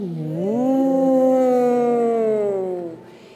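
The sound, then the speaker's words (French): A person imitates a cow's moo during a cow-and-cat stretching exercise, with one long, drawn-out vocal call that swoops upward, holds steady for a few seconds, then trails off, fairly loud with no other talk. “Et encore des vaches.”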